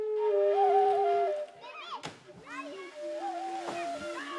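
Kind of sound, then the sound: nature, river water splashing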